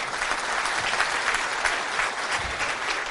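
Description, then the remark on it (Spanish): An audience claps steadily in a dense, continuous burst of applause for the speaker's parents and family, many hands at once with no voices rising above the noise. “Y un aplauso para mis padres y mi familia, por favor.”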